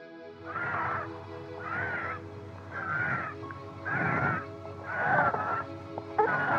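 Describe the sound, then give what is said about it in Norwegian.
A child wheezes with severe asthma, taking about six strained, whistling breaths in a steady rhythm, clear, with a faint low hum underneath and no talking. “Dette er lyden av et barn med tung astma.”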